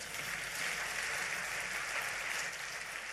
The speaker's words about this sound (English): If that's you, can you give God a clap offering for that?